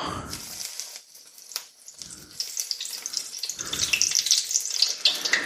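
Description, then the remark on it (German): Steady sizzling and crackling of three hand-formed falafel patties deep-frying, swimming in hot oil after being lowered in with a long-tined fork, with bright pops scattered throughout and a few low bumps of handling. No one speaks. “Man muss die nicht unbedingt frittieren. Man kann die auch in, äh, in der Pfanne garen.”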